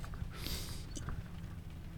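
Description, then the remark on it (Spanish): Steady rain drums on the roof of a van, a soft continuous patter over a low rumble, with a brief brighter hiss swelling midway. Fairly quiet, with no voices. “nosotros estar en la van con lluvia es como sentirse en un rancho. ¿No escuchan la lluvia?”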